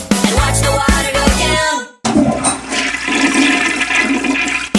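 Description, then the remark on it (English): A toilet flushes loudly as its handle is pushed, a brief clunk and gush followed by a steady rushing swirl of water that continues as the tank refills. No voices are present. “Flushing the toilet, he's a cat.”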